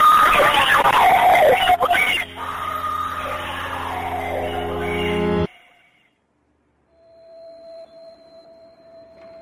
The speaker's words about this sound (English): That sound you heard in the background? That's screaming. And I'm not playing the whole call because it's both distorted and it's upsetting.